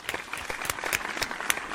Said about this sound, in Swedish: Det Hult har redigerat in en applåd här.